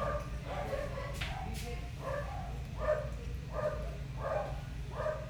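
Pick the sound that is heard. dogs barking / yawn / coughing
dogs barking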